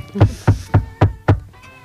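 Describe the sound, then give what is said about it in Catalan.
Five firm knocks on a wooden door, evenly spaced at a quick steady rhythm, fairly loud, with no voices. “Endavant.”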